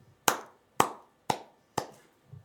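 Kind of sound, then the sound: crowd, applause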